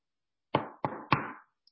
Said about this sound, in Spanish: Tocan la puerta de su casa. ¿Quién es?